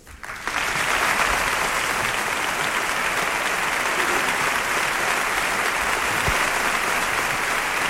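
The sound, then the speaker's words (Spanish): Sustained audience applause after a radio reading of a eulogy of Holy Week (Semana Santa) starts abruptly and holds steady, a dense, even wash of many hands clapping at constant loudness throughout, with no voices. “Bueno, que ha agradecido el aplauso y ha dado esas buenas noches”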